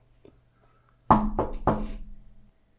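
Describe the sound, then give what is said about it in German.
Three firm knocks on wood in quick succession, fairly loud, each with a short hollow resonance, and no talking in between. “Ich habe auf Holz mal, geklopft.”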